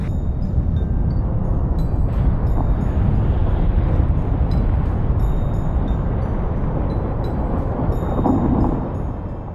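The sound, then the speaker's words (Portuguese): A glacier breaking apart in Greenland: a block of ice more than 100 metres tall above the water line and kilometres long collapses into the ocean, a deep, continuous thunderous roar and rumble that holds steady for several seconds before easing slightly at the end, with no voices. “Um bloco de gelo com mais de 100 metros de altura a partir do nível da água se descolou e desmoronou no oceano, com quilômetros de extensão.”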